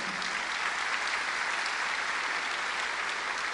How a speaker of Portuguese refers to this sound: E, e amém. Pode aplaudir o Senhor, né?